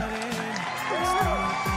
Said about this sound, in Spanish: Ahí va a poner nuevo aplauso.